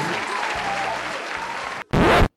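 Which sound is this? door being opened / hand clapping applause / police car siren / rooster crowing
hand clapping applause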